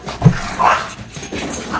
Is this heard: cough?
no